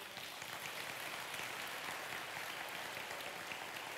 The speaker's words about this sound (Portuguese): Aplauda esse nome poderoso.